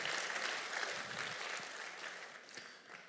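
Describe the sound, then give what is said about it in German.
An audience claps for the technical crew in a steady, dense burst of applause that stays loud throughout and eases off slightly toward the end, with no one speaking over it. “Komm, geben wir der Technik mal einen Applaus.”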